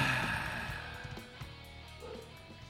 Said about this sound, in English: There's a dog in the background. Two, and the lawnmower, actually.